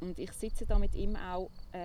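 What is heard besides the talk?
crickets chirping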